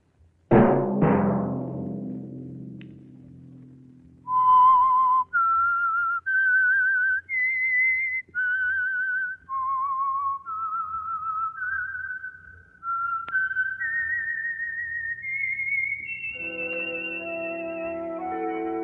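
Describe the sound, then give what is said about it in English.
A clear whistled melody, the theme of the Signal Oil program The Whistler, of sustained, wavering notes stepping up and down in pitch, following a short burst of louder tones at the start and joined by fuller accompaniment near the end. “Let that whistle be your signal for the Signal Oil program, The Whistler, each Sunday night at this same time.”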